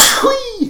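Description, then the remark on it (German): A single sharp sneeze, loud, with a burst of hissing breath followed by a short voiced tail that trails off. “Gesundheit, Verzeihen Sie bitte.”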